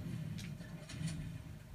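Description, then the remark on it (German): A truck engine in a video game runs with a steady, low rumbling drone throughout, moderately loud and continuous, with a few brief airy hiss-like bursts on top and no talking. “Ja, ich laufe schnell, dass diese Truck fährt, ne?”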